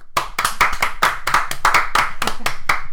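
Steady applause from a small group for the camera operator: many sharp, crisp hand claps overlap in a quick, fairly even rhythm, loud and sustained for the whole stretch with no talking over it.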